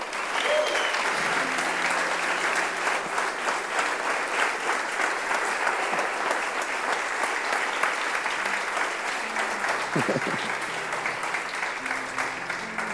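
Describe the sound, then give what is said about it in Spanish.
A church audience applauds the King of Glory steadily for about thirteen seconds, a dense, even wash of many hands clapping at constant loudness, with faint voices and a brief shout rising through it near the end. “Aplaudir al Rey de Gloria.”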